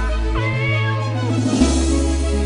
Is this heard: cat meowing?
yes